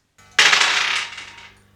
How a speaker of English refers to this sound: is going to roll the same two dice again, but we're going to multiply the number by 100.